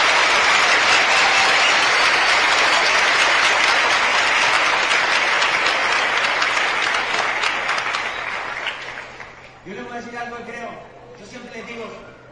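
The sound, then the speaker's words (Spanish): An audience breaks into loud, dense applause welcoming people attending for the first time; it holds steady for several seconds, then thins out and fades as a person starts talking over the last of the clapping. “Muchas gracias, le vamos a dar un aplauso, bienvenida a toda la gente.”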